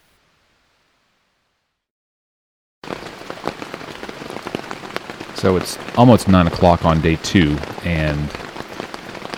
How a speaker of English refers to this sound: that sound is the rain that's hitting my tent. It started raining again. Uh, this is like the third or fourth time that it's been uh, a downpour out here. Also, this tent is very old, so it is not quite as waterproof as I would like.